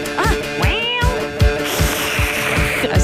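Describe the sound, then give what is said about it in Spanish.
A person mimics a cat with a couple of drawn-out meows that rise and fall in pitch, over a steady, rhythmic low thumping and busy background noise. “Hoy no hicimos el gato. ¡Miau!”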